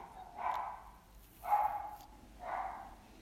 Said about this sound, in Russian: Я надеюсь, что это будет да, слышно, по записи. Слышно по амплитуде, как орёт собака. Я надеюсь, что это действительно будет слышно.